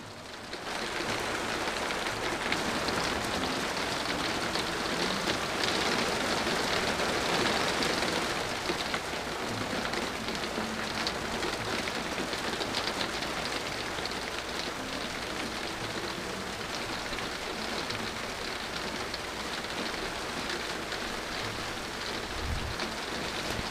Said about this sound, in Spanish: no sé si ustedes escuchan, pero vamos a tratar de quedarnos callados para que escuchen un momento la lluvia, cómo es que está cayendo en este momento. Escuchen.